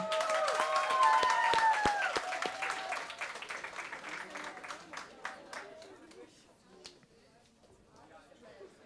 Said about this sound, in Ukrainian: Трошки оплесків для нього, будь ласка.